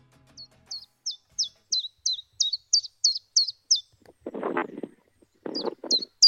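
A common chiffchaff sings a steady series of about a dozen high, evenly spaced chirping notes, briefly broken by low rustling bursts before the notes pick up again.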